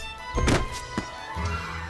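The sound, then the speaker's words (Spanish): An arrow is loosed at Wendy, mistaken for a bird, with a quick rising whoosh, then strikes home with a single sharp thunk about half a second later, followed by a low, steady hum. “Ahí va mi flecha.”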